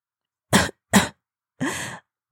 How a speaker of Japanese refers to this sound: 弟は咳き込みました。咳き込みました。きなこが喉に詰まりました。